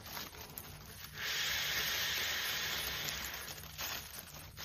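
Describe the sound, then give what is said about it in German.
A man breathes alternately into two bags in a video posted on YouTube, an ironic comment on the Covid lockdown: one long, steady rush of breathy hiss lasting a few seconds, then a short pause and the start of another breath. The sound is moderately loud, with no talking. “Hier atmet er abwechselnd in zwei Tüten und kommentiert ironisch, wenn jeder die Zwei-Tüten-Atmung benutzen würde, hätten wir schon längst keinen Lockdown mehr.”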